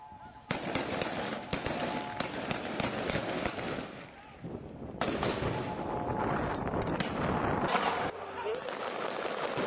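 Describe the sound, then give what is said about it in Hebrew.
Chaotic riot sounds: rapid bursts of sharp bangs and cracks from fireworks fired at police forces and police stun grenades used to disperse the protest, one after another, amid shouting crowd noise, loud throughout. “זה, בעיקר אה, ירי של זיקוקים לעבר אה, כוחות המשטרה, אה, וגם מענה של המשטרה באמצעים לפיזור הפגנות, לימוני הלם ועוד.”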